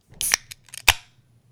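A can of Medalla beer is cracked open: a short metallic scrape, then a sharp pop followed by a brief fizzing hiss that quickly fades, with no one talking.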